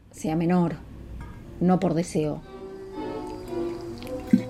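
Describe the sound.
Hot water is poured into a mate cup, a steady close-up stream with a gently shifting tone over the last second or so, after a couple of short voiced sounds.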